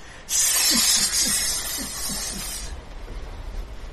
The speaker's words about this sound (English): Alright, and you are up first as you see this enormous beast crash out of the water and it just hisses repeatedly at you, but in 12 echoing, recurring heads they lash around you.